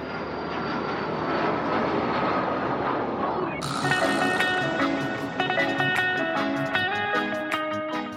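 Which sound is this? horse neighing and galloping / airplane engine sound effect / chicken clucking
airplane engine sound effect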